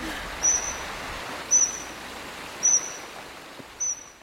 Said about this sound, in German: Ja, das Wasser ist echt beruhigend, wenn das so plätschert dabei. Ja, und dann aber sind dann noch die Vögel, die zwitschern.